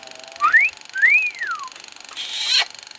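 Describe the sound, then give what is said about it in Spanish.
A clear wolf whistle catcall aimed at a passing woman: a quick upward sweep followed by a longer rising-and-falling glide, then a short hissy burst at the end. No talking. “Mándale un piropo.”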